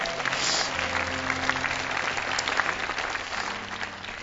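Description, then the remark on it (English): An audience at a church service applauds steadily, a dense, even wash of many hands clapping with no single beat standing out, while a low sustained organ or keyboard chord hums underneath throughout. “Let's clap.”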